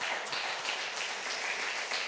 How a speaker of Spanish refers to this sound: Dele un aplauso a Dios, ¿vale?